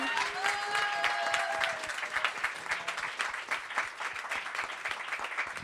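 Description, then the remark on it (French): An audience applauds the guests at the end of a show, with steady, dense, sustained clapping throughout, while a few high, drawn-out whistles or cheers ring over it at the start. “Vous pouvez les applaudir bien bah, fort.”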